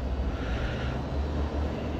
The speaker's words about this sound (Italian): forse questo è il mio autobus.